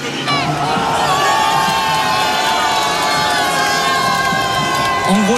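A huge stadium crowd of 39,000 spectators roars in sustained, dense cheering at a rugby match as Thomas Ramos kicks the last penalty that puts France ahead before half-time, with shouts and whoops rising through the din, loud and continuous from start to finish.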